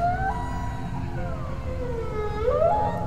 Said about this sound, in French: Et euh, en parallèle derrière ça, le chant des baleines à bosse, parce qu'on était en pleine période de reproduction des baleines à bosse et elles étaient omniprésentes autour de nous dans les chants qu'on entendait.